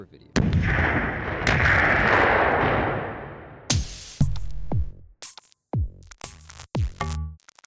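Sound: explosion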